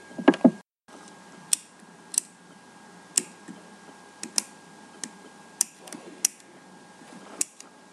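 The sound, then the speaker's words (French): A four-colour pen, presented as a school classroom noise, clicks repeatedly, about a dozen sharp, crisp snaps at an uneven pace, following a brief rustling handling noise, with a quiet hiss underneath. “Alors, vous avez trouvé Bravo, c'était le stylo 4 couleurs.”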